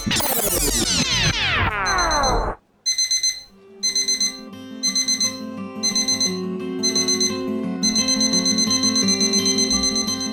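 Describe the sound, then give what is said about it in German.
A loud electronic alarm clock goes off: a few falling, sweeping tones, then insistent bursts of rapid high-pitched beeping repeating in a steady pattern, with no voices. “Die Magierin sprang hoch, umschlang mich eng und gab piepsende Laute von sich, die wie ein Wecker klangen.”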